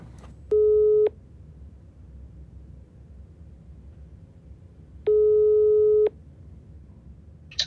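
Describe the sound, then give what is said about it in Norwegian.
A telephone ringback tone sounds twice, each a steady mid-pitched beep lasting about half a second to a second, separated by a long pause over a low background hum. “Skal vi ringe han eh, som de mener det var?”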